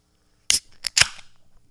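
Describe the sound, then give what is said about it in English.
A can of eight percent Belgian double ale cracks open: a sharp metallic snap, then two more quick bursts of pressure with a bright, fizzy hiss that trails off. No one speaks. “I'm gonna crack it now.”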